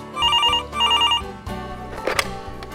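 A telephone rings in two bright, trilling bursts of bell tone, fairly loud, before fading into a low musical background with no one speaking; an incoming call from Detroit.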